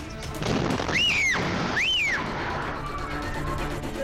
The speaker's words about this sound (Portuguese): Na sequência, é possível ouvir uma grande explosão e gritos de pavor.